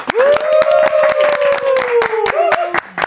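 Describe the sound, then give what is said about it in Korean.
Loud, irregular clapping from a few pairs of hands, sharp and uneven, given on a count of one, two, three in congratulation, with a long sustained vocal whoop sliding gradually downward over most of the applause. “자, 박수 한번 가보도록 하겠습니다.”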